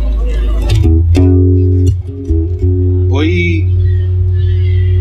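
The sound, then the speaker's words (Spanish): A loud, amplified electric guitar plays sustained, distorted notes with a steady low hum underneath, ending with a sliding, bending tone. “¿Se escucha la guitarra?”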